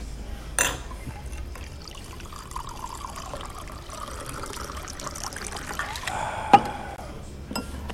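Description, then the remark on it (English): A silver martini without an olive trickles and pours steadily into a glass for several seconds, with a soft clink partway through and another near the end, fairly quiet, no talking. “Dick Nixon's silver martini minus the olive. Cheers.”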